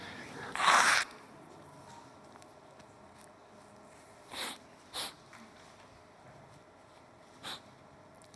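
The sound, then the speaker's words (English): A person blows their nose in one loud, rough honk near the start, followed by a few shorter, quieter sniffs spaced over the next several seconds, with no talking. “You'll have to excuse me, I need to blow my nose.”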